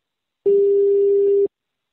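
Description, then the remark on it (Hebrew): As a telephone call is placed, a single steady ringing tone sounds for about a second, a flat electronic beep with a buzzy edge, then cuts off into silence. No voices are heard. “אני חייב להתקשר לבועז.”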